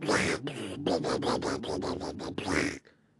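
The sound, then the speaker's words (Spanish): Construction work near a home: a loud, harsh run of about eight rapid grinding bursts of drilling and hammering, with no talking, cutting off abruptly at the end. “Y es que ahorita acá por mi casa están como construyendo o algo así. Entonces escuchan golpes y, y taladro así.”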